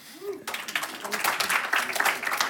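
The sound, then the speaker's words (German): Audience applause breaks out after a brief murmur, a dense, steady patter of many hands clapping at moderate loudness that holds to the end. “Gib mal mir einen Applaus.”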